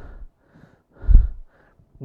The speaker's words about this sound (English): I've learned, it came to a point where I naturally breathe through my stomach now when I'm breathing. You notice that?